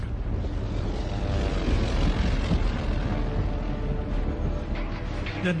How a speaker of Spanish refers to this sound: Vi que había dos aviones cerca de nosotros. De repente, ardieron.